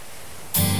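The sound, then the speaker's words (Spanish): Sea waves make a steady, hissing rush that suddenly swells much louder about halfway through, with a low rumbling hum underneath. No one speaks. “Ruido de mar.”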